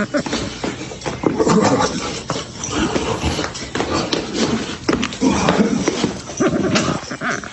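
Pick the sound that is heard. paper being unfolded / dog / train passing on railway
dog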